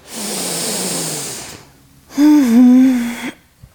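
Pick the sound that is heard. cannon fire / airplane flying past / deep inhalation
deep inhalation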